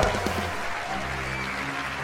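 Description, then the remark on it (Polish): A steady wash of applause, dense overlapping claps holding an even level for about two seconds, with a low droning tone running underneath. “Brawa dla Was!”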